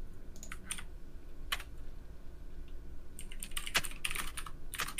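Rapid, irregular typing on a computer keyboard with clustered clicks and a few sharper key strikes, fairly quiet over a steady low background hum, with no one speaking.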